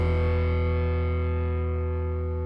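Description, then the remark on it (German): A loud, buzzy intro jingle: a sustained, distorted synth chord rings steadily for a couple of seconds, slowly fading in brightness, with no voices over it. “Was es für eine Software ist, das sagen wir euch direkt nach dem Intro.”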